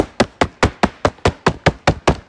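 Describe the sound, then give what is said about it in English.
A rapid, steady run of about ten sharp knocks on a door, evenly spaced and fairly loud, with no voices. “on my door. I'm like, Jesus, who else would it be?”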